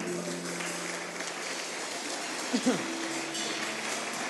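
An audience applauds for the King, in a steady, dense patter of clapping that holds evenly throughout, with a low sustained hum underneath and a brief louder knock partway through.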